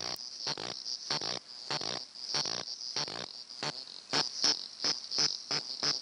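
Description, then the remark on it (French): Cicadas of a new genus and species call in the Kenyan steppe in a dense, continuous high-pitched drone, broken by steady rhythmic pulses that give it a croaking, ratcheting quality like frogs. No one speaks. “J'entendais euh, évidemment ces bruits-là que l'on vient d'entendre et je, pensais à des coassements de grenouilles.”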